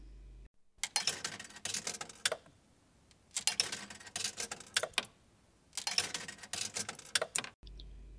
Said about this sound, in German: Sie zieht euch zu einem nahegelegenen Münztelefon, wirft ein paar Münzen ein,